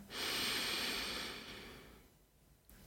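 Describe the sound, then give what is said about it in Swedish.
A single long, airy deep breath drawn in, swelling quickly and then slowly tapering off over about two seconds, with no talking. “Ta ett djupt andetag in.”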